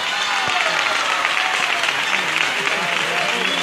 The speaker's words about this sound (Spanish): Ya está Triana viendo al Cristo de las tres caídas de Triana. Muy poco a poco, mi arma. Muy poco a poco. El vecino más antiguo de la calle Pureza. y de un momento a otro esto va a estallar en una ovación. ¡No corre! Escuchen, escuchen.